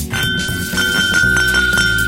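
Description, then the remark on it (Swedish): A bright clink of two Glencairn whisky glasses touched together rings out with a sustained high tone that lingers, followed by a few softer taps against a low background hum, clear. “jag klingar lite med mig själv i Glenn Cairn-glasen.”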